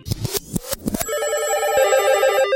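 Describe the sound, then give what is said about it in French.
A telephone rings loudly with no one talking, opening with a few quick choppy bursts before settling into a steady, warbling electronic trill that continues to the end, before an answering machine picks up. “Je vous laisse écouter le message qu'il a laissé sur le répondeur du SAV.”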